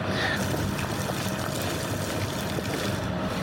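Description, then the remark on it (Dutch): Water boiling in a pot for cooking pasta, a steady rolling bubble and hiss that stays even and continuous throughout with no talking. “Kijk, ondertussen kook het water.”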